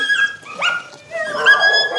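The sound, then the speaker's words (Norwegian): High-pitched puppy yips and whimpers, several overlapping cries rising and falling in quick bursts, fairly loud with a brief lull in the middle. “Hun vil gjerne vise meg valparna.”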